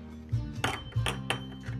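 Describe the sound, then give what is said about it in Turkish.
Something drops into a glass, giving a series of dull thunks mixed with faint glassy clinks at uneven intervals, moderately loud over a low steady hum with no talking. “Bardağa koydum.”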